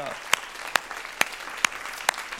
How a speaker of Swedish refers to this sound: Ska vi ge dem en applåd för de härliga bibelorden?